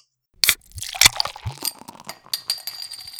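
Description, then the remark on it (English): A glass bottle of beer, a Gage Roads Brewing Company Atomic Pale Ale, is cracked open with a sharp metallic snap, then clinks and a fizzy hiss and pour of liquid follow. No one speaks. “do you want to crack open a cold one with the boys?”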